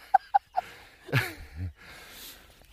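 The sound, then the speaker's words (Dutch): A common cuckoo calls with three short, clear hooting notes in quick succession, followed by a breathy sigh and soft rustling. “Want ik hoorde net een koekoek.”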